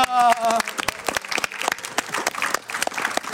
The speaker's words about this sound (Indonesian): luar biasa tepuk tangan